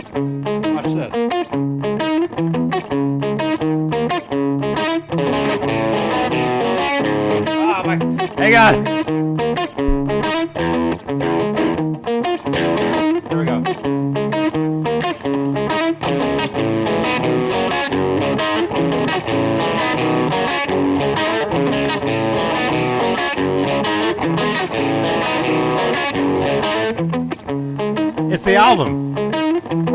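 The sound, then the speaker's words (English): A distorted electric guitar plays a song's main riff, repeating stepped, chunky notes over a steady backing loop, loud and continuous throughout, with a couple of bright crash-like bursts along the way. “I'll play that main riff over this, and you'll be like, that's the song.”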